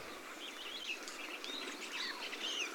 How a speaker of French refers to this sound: Aujourd'hui, quatre espèces de grives et des merles noires continuent à se gaver de baies de sorbier.